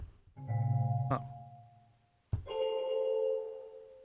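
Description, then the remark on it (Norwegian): Two struck tones of a bell sample, pitch-shifted to fit different notes and given added reverb, ring out alone, each with a sharp attack and a long, reverberant sustain; the second is higher-pitched and brighter, like a pitch-shifted copy of the first. “Det er bare ei bjelle. Så du har tatt den bjella og da manipulert den og Manipulert den og sørga for at den passer i de forskjellige tonene, og lagt okay, på litt klang”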